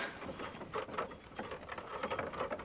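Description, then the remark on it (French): A continuous high-pitched squealing of an ungreased cart axle turning at night rises and falls in repeated arcs over a rumbling, rolling background for a few seconds, with no voices. “On pourrait quand même mettre un coup de graisse à son essieu.”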